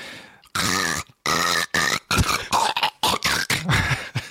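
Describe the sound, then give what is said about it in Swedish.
A person's voice imitates a squirrel's chattering call: a loud run of rough, throaty bursts, starting with a few longer pulses and breaking into quicker stuttering ones. “Det låter som en ut och invänd hackspett. och ekorre som korrar hyfsat högfrekvent.”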